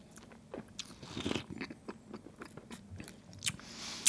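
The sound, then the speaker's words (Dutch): Wet mouth sounds of wine being swished and sloshed around in the mouth while tasting it, with small clicks, smacks and a couple of airy slurps over about four seconds, and no talking. “En dan wals je die wijn even door je mond.”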